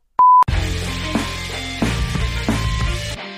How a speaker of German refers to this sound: aber ich muss den Flugmodus noch reinmachen, sonst geht das hier alles aus. Also dann piepst und dann bin ich aus.